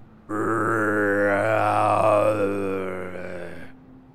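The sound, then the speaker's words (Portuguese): A person imitates a distant creature's roar with one long, deep, rasping growl that swells, holds for about three seconds, then fades away, with no other sounds around it. “Como se tivesse alguma coisa rugindo ao longe.”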